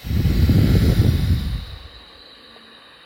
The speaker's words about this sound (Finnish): Mutta otetaan nyt nenän kautta yksi sis- sisäänhengitys. Ja pitkä uloshengitys tyhjentäen keuhkot.